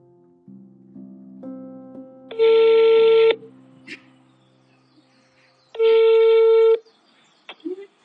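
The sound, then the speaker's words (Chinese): A short run of soft dialing beeps, then two loud, steady, buzzy ringback tones, each about a second long, separated by a pause of roughly two and a half seconds. “我跟我二哥说，这个电话你打还是我打？”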